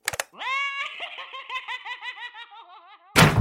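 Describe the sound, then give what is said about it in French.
A laugh box toy, opened by Monsieur Hérisson as he walks away, cackles in a high, mechanical voice, a steady run of rapid, bouncy ha-ha pulses that wobble in pitch for about three seconds before a click cuts it off. “et Hérisson s'éloigna en ouvrant la boîte à rire, tout en marchant.”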